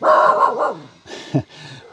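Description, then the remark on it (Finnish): A fox terrier hunting dog named Ruuti barks, a longer yelping bark followed by a couple of shorter, sharper barks, fairly loud with no talking. “Niin ruuti on kettuterrieri ja aina kun se näkee jotain liikettä vähän ympärillä, niin se haluaa osallistua asioihin.”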